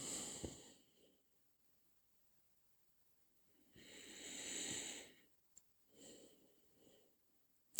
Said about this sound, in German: Ja, und ich muss jetzt immer wieder gähnen.